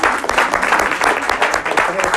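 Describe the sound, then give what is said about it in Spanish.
An audience applauds couples married 46 years, a dense, steady wash of many hands clapping at once, loud and sustained without a break, with a few voices mixed faintly into the noise. “Hermanos, un aplauso para los que ya 46 años, los casados.”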